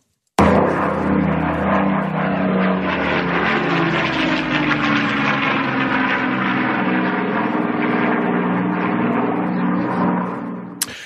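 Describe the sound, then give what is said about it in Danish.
A loud, steady drone of a German Heinkel 111 piston-engined bomber flying overhead, deep throbbing engine harmonics with a slight pulsing beat, sustained for several seconds before cutting off abruptly. “april 1940, der kunne danskerne høre lyden, lyden fra tyske flyvemaskiner, der overfløj landet som led i Operation Weserübung, den tyske besættelse af Danmark.”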